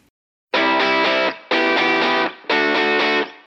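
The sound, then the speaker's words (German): A loud snippet of a pop song played as a music break: three sustained, harmonically rich chord swells separated by short dips, with no singing or talking. “Ich würde verschlagen, nach diesem schweren Thema hören wir uns ein bisschen Musik an zum Durchatmen.”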